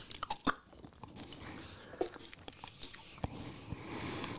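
Chewing of sticky cookies, with irregular wet smacks and soft crunchy clicks scattered over a few seconds, fairly quiet, with no one talking.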